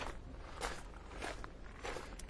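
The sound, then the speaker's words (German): Footsteps crunch through an outdoor gravel bed at a steady walking pace, each step a broad gritty scrunch, moderately loud with no talking. “hier noch einmal durchs Kiesbett. Nur wegen des Sounds.”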